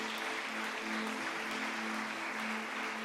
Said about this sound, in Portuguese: Glorifiquem a Deus com suas palmas.